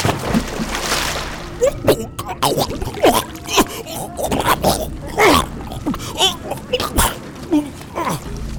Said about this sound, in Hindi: पानी में गिर चुका था राजू